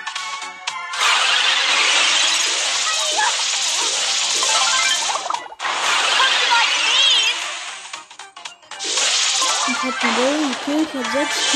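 A video game car engine starts up and drives off, a loud, dense, noisy roar with wavering revving pitches, briefly cutting out twice before surging again.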